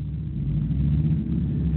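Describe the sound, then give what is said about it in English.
A loud car next door or downstairs rumbles and revs, a steady, deep mechanical roar with a slight rise and fall, no voices over it. “Get a noisy car next door or downstairs. It really is noisy, isn't it? You can hear it. It's almost like a race car.”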